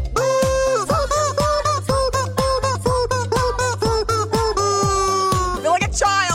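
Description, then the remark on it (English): A squeaky rubber chicken honks out the melody of an old-school funk song note by note over a steady thumping dance beat, loud, with short rhythmic squeals throughout. “this, this chicken could go on a reality singing show.”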